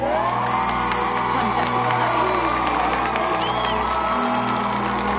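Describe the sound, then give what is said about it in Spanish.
In a Harry Potter scene at Hogwarts, a large crowd cheers and shouts as Gryffindor house is awarded 60 points, with steady, dense applause throughout, a loud, continuous roar of clapping hands and excited whoops with no letup. “La profesora la aplaude.”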